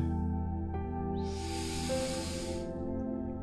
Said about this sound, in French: Je vous invite à présent à prendre une grande respiration